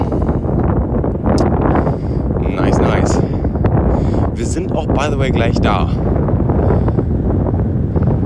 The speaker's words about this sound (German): Naja, es geht hier gerade einen Berg runter, ihr hört es wahrscheinlich wegen dem ganzen Wind.